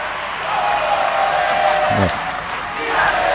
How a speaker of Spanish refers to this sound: Y escuchamos acá los fanáticos de … ahí eh, alentando. Esto fue el Esniceto, exactamente la fecha exacta se la digo, 25 de enero de 2018, exactamente. Primera vez que venía … acá en Argentina.